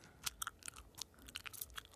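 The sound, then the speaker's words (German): Wet chewing of gum close to the microphone, with a quick, irregular run of smacking clicks and squelches, intimate and fairly quiet, with no voices alongside. “Obwohl, ich habe heute einen Kaugummi im Mund.”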